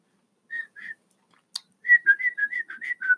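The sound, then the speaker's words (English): A person whistles a birdlike call: two short notes, a brief click, then a quick run of about eight chirpy whistled notes in a lively trill, with no talking. “One of them lit nearby on a stem, and it looked at them with two bright black eyes, and opening its mouth, which was pointed like a thorn, sent forth a little trill.”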